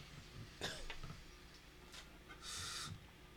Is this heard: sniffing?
yes